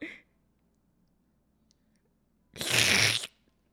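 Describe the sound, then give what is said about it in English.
After a stretch of near silence, one loud slurping noise marking an on-screen kiss erupts, a wet, hissy burst lasting under a second, then fades back to quiet. “A slurp every time you see a kiss.”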